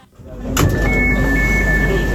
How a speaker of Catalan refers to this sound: I parlant del metro, un dels sons que fa el metro m'ha desbloquejat un record. És aquest.